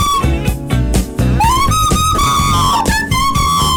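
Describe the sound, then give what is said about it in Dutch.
A whistled Dutch pop hit from the 1990s: the whistled melody rides loudly on top of a full backing track with steady drums and bass, the tune gliding and sustaining notes up front for several seconds. “Alles klinkt gewoon beter met de fluit.”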